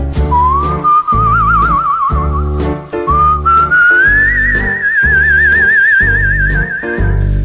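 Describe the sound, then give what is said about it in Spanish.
A person whistles a wavering, vibrato-laden melody that climbs in pitch, clear, over a steady, pulsing musical beat, with no talking. “Y de ayer fue el Día del Silbido, el Día Internacional.”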